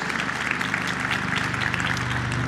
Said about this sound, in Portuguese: Vamos receber a Tati com uma salva de palmas.